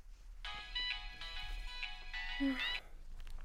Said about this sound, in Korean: 며칠 후 집에서 대충 저녁을 차려 먹고 영화를 다운로드 받아 볼까 하던 찰나 핸드폰이 울린다.